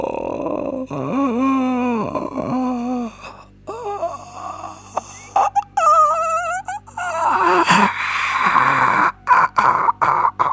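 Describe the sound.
A woman imitates a zombie with long, wavering, guttural moans and groans, loud, rising and falling in pitch with ragged breathy gasps between them, and no other talk.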